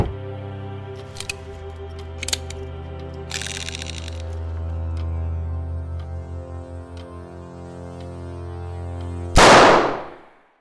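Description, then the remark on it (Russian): A single loud gunshot from a man's suicide attempt cracks out near the end, cutting sharply through a low, sustained musical drone with a few soft clicks before it, then quickly decays. “Вторая попытка Володи застрелиться удалась.”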